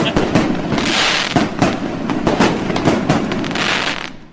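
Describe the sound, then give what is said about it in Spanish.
A rapid barrage of firecrackers set off by two men from Tultepec, cracking and popping in dense bursts with bright crackle overlapping continuously, mixed with some background voices. “Traje dos señores de Tultepec a tronar cohetes.”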